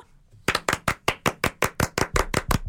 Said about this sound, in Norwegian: og jeg elsker at vi klapper for det. Yes! yes!